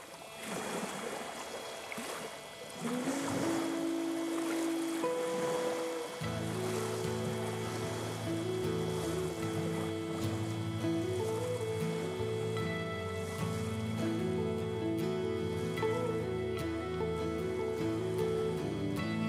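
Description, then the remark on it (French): Waves wash onto a beach in a steady, rushing roar, a sound effect on a rock album announcing its final track. After a few seconds, sustained melodic music swells in and plays over the continuing surf. “et également des bruits de vagues qui s'échouent sur une plage, ce qui annonce l'arrivée du morceau final de l'album,”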